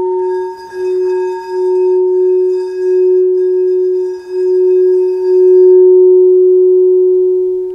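A quartz crystal singing bowl rings with a steady, pure humming tone and faint shimmering overtones, sustained and loud throughout, swelling slightly in places, with no voices.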